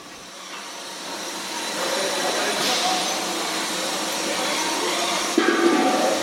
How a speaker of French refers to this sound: On se retrouve maintenant devant l'une des deux, trois lignes de conditionnement. Ici, on conditionne les fûts. Alors, tout à fait, là on a la ligne fût devant nous.